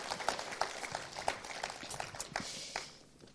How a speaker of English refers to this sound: Round of applause for the glamorous assistants.